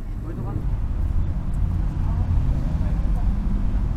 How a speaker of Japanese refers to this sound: それでは皆様大変お待たせいたしましたただいまよりオープントップバス出発してまいります